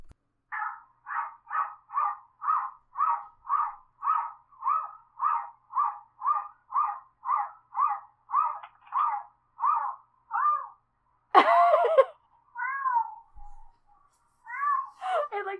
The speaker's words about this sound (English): there is a video on YouTube of a cat barking